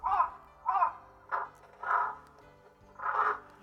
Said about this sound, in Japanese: 今これ ちょっと警戒してたのかなこれカラス今あ言ってますけどこれ今なんか喋ってるんですかこれはそうですねあのカラスがその警戒している時の鳴き声なんですけれども